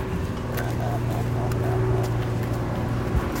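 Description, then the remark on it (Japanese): A truck's heavy engine rumbles steadily in a tunnel, a low droning hum with a constant roar of road noise that holds at the same loud level throughout. “だってもう静かなの本当に静かトラックの音入ってるこの先はトンネルだからこうやってあなるほどトンネルの音なのねトラックの音”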